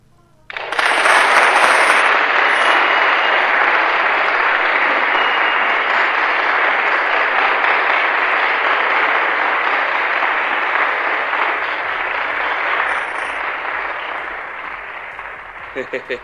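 A crowd bursts into loud, dense applause after a poem is read, holding steady for about fifteen seconds, a continuous wash of clapping that thins slightly toward the end.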